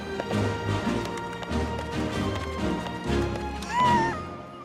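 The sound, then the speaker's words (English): The hooves of a donkey ridden by a man clip-clop in a steady, busy rhythm, with a short, high animal cry rising briefly near the end. “A man on a donkey! Never in my six weeks on the job have I seen the likes of this!”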